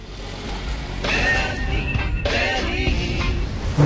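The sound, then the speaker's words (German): A car drives along with a steady low engine rumble and road noise, fairly loud, swelling slightly partway through. No one speaks. “Die Fahrt mit dem Auto ist Nummer 14.”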